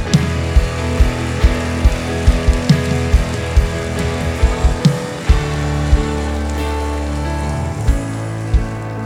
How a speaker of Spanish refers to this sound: Denle un aplauso al Rey.